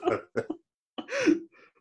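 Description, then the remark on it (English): A quick run of three coughs, followed after a short pause by a longer, rougher, partly voiced cough or throat-clearing. The coughs are fairly loud, with no talking. “have both had very bad coughs”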